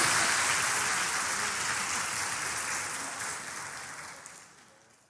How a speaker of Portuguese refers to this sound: aplauda os, irmãos aqui, por gentileza.